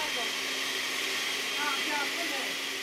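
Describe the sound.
An electric blender runs continuously, a steady, loud, high-pitched motor whir that barely changes for the whole stretch, with a faint voice briefly audible beneath it.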